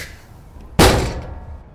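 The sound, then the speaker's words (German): A single heavy slam as a metal shoulder rams into a door at full speed after a short run-up: a sudden loud thud with a short reverberant tail, after a moment of quiet room noise. “Ich gehe ein paar Schritte rückwärts zurück und dann äh, laufe ich Vollgas mit der Metallschulter mal gegen die Tür.”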